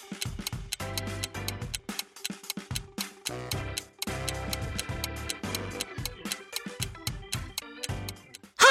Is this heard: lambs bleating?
no